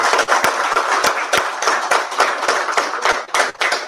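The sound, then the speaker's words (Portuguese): An audience claps steadily for a few seconds in honor of a colleague, a dense, lively wash of many hands with sharper individual claps popping out here and there, fairly loud. “Uma salva de palmas para ele.”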